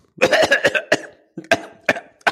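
A person with a cough has a fit of coughing: a quick run of harsh, raspy coughs, then a few more spaced out after a short pause. No one speaks.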